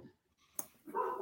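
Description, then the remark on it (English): Dogs bark in the background, a sharp yap followed by a longer, louder bark near the end of the short clip, with no voices present. “Yeah, sorry, the dogs are barking.”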